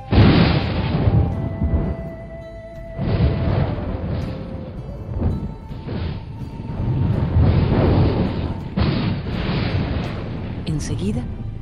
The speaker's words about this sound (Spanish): Beb Cororoti golpeó el aire con su bastón y resonó un terrible trueno.